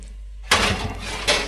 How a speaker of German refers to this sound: Und jetzt schieben wir das in den Ofen. Tun das auf dem Blech.